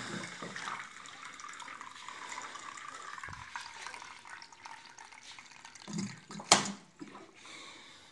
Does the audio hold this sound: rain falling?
no